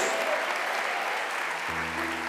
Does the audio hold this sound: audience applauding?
yes